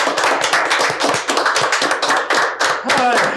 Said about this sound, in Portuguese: O que, que o nosso convidado merece, galera? Aquela é de sempre, né, cara? Uma hum. salva de palmas.